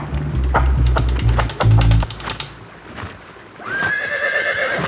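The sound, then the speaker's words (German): Rapid hooves clatter for a couple of seconds, then a horse being ridden into a rushing stream lets out a loud, high whinny over a steady rushing background. “Reitet einfach in den reißenden Bach, der Trottel.”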